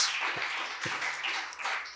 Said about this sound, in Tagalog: Sige po, palakpak po para sa Panginoong Diyos.